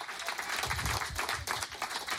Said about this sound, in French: tu marches trop vite, prends le temps, de profiter des applaudissements. Doucement, doucement.